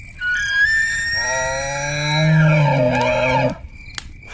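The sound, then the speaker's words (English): A deep, raspy elk bugle rises into a high whistling squeal with a low growling undertone, then cuts off abruptly after about three seconds, loud with no talking, in windless conditions. “And I'm hearing now, as I start getting closer, I'm starting to hear multiple cow calls, and I'm hearing a incredibly deep, raspy bugle.”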